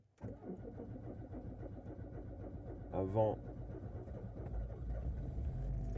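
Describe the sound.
A car engine hums steadily from inside the cabin, a low continuous rumble that swells slightly toward the end, with a man talking over it throughout as he drives in south-west France in thick fog.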